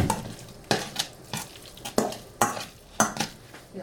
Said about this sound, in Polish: Teraz delikatnie całość rozmieszam.